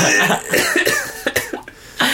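A run of short, raspy coughs, close and fairly loud, coming in uneven bursts with brief pauses between them, heard on their own without speech.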